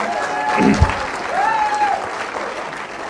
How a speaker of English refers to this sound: But why don't you put your hands together